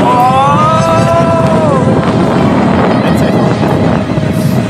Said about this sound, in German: Wir müssen ja ein bisschen gegen den Wind stellen hier.